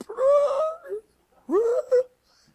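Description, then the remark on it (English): A person's voice imitates a dog whining for food, in two drawn-out, rising and falling whimpers separated by a brief pause, fairly loud with no other talk. “he makes that noise.”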